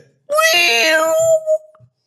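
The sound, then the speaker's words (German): A person imitates a TV helicopter coming over a mountain with one loud, sustained high-pitched vocal whine lasting just over a second, then a short fading tail. No one speaks. “ich wollte, wie der Hubschrauber über den Berg kommt, der Airwolf, das wollte ich nochmal nachmachen”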